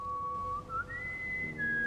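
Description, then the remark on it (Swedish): A single eerie human whistle holds one thin, steady pitch, then glides upward and lingers on a higher note, over a low, murky background rumble. “Visslandet.”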